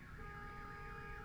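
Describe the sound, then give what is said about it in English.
A car alarm blares outside with steady, warbling electronic tones, fairly faint, sounding continuously over low background rumble with no talking. “There's just a motorcycle that was the motorcycle's gone, but now the car alarm's still going off.”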